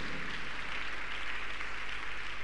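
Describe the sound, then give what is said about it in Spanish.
A crowd claps steadily for the full stretch, a dense wash of many hands with no voices breaking through, people giving a big round of applause to the Lord. “denle un aplauso grande al Señor por eso, amén.”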